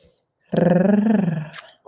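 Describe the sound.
A person imitates a cat's purr: one steady, throaty rolling sound lasting about a second, low-pitched and fairly loud, with a quick fluttering pulse running through it.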